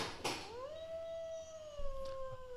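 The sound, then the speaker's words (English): A person lets out one long wolf-like howl, swooping upward and then holding a steady, fairly loud tone for a couple of seconds before trailing off, with faint background noise. “You're really the wolf.”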